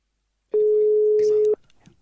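A single steady telephone ringing tone sounds for about a second, loud and clear as if heard through the handset, before a call placed from a studio is answered, then cuts off into faint background noise.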